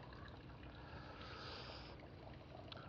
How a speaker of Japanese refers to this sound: 現在地はですね、普段の散歩コースですが、えー、農業用水に水が注ぎ込んでいる、その水音を聞きながら、で、そうですね、今電話をかけている体で、あのスマホで録音してるんですけど